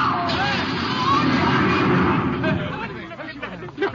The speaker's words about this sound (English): Look out. Car coming out of that side street. Let them look out. You're going to hit. Ah!